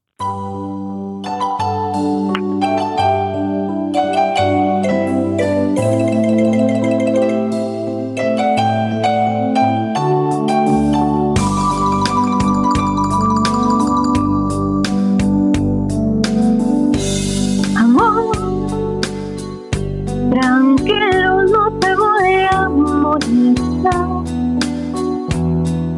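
A slow Spanish-language ballad with sustained, lush instrumental backing, where a female singer's voice rises with warm vibrato over the music. It plays steadily and loud throughout.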